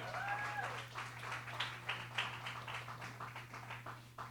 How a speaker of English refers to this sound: Give my lovely assistants a big round of applause. Amen.